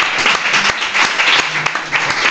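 A crowd applauding, a dense, steady wash of many hands clapping at once with no pause, fairly loud throughout the short burst and no voices standing out.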